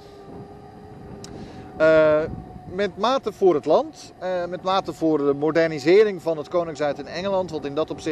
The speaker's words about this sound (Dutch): mijn excuses voor de wind als u die heel erg hoort, eh, trouwens.